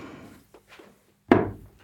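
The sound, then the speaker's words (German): A single hollow knock on a wooden table, made to signal recognizing a statement read aloud, rings out sharply and fades, preceded by a few faint, soft bumps in an otherwise quiet moment with no talking. “dann klopfen Sie und wir sprechen kurz drüber.”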